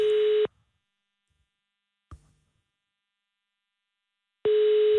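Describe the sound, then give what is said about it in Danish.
A telephone ringback tone on a call to Ole Birk Olsen's phone sounds in two short, steady electronic bursts about four seconds apart, with silence and a faint click in between, heard clearly over the line before voicemail answers. “Jeg kan ikke komme til telefonen lige nu.”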